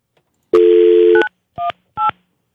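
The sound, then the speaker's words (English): A steady phone dial tone hums for under a second, then three short touch-tone keypad beeps follow at an even pace, loud and clear with no talking. “Did you dial correctly?”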